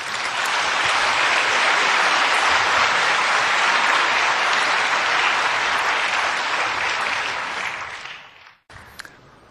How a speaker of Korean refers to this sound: 나오실 때 따뜻한 박수로 격려하시겠습니다.